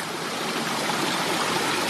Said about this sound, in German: Aber was ich jetzt toll finde an diesem Damm ist, dass er doch an zwei Stellen das Wasser eigentlich durchlässt, oder?